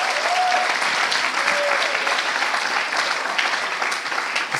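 Steady, dense applause from an audience for members of a church team, many hands clapping in a continuous even roar that holds at a constant loudness throughout, with a couple of faint whistles near the start.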